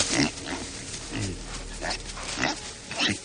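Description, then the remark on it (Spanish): A black pig grunts and snorts among thick undergrowth in a series of short, rough bursts at uneven intervals, moderately loud, with no voices present. “Solo era un cerdo.”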